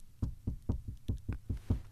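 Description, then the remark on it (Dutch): A rapid series of about seven firm knocks on a wooden studio door, evenly spaced, with no voices. “Oh, er wordt op de deur geklopt van mijn studio.”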